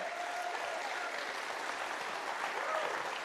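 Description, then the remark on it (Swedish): An audience applauding a woman who leads a church in Milovice, Czech Republic, at a church gathering in Sweden: a dense, steady patter of many hands clapping that holds at an even, moderate level for a few seconds, with a faint voice briefly audible underneath. “She's one of the, yeah, give her a big hand.”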